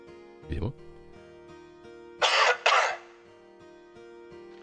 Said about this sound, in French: Ah bah c'est super je voulais couper, à la place je vous ai mis de l'effet sur ma toux. Parfois on se trompe de bouton. C'est le matin pour tout le monde. C'était donc de la toux en mégaphone.